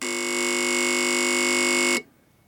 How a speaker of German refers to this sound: Das ist ein Telefon für den Fahrdienstleiter, nur dass dieses Telefon viel, viel mehr kann.